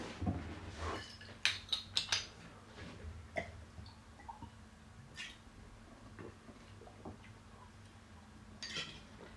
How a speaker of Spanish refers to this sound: Realmente, un segundo que voy a beber agua, disculparme.